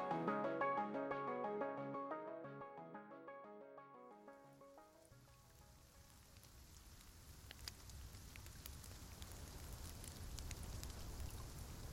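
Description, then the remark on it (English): A few seconds of music fade out, leaving steady rain pattering at night with no moon or stars, a dense hiss with occasional sharper drops, continuing evenly to the end. “Not much to see out there tonight. Raining like it is.”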